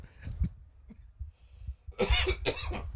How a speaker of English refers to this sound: All right. Well, I got a cough. Hopefully, it's not COVID.